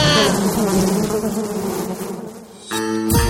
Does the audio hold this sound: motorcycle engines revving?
no